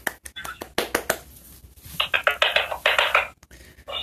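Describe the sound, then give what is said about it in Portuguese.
A quick run of sharp hand claps in an uneven rhythm, followed by a stretch of soft, breathy, whisper-like sounds and a few more faint taps. “palmas, palmas, palmas, palmas.”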